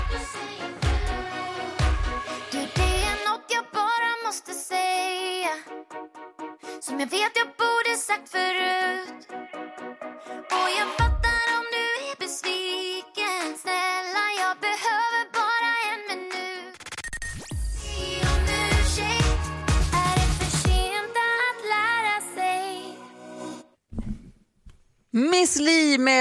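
A newly released pop song premieres on Mix Megapol radio at full volume, with a sung vocal over bright layered instruments and punchy low drum hits, briefly thinning out before a final swell near the end.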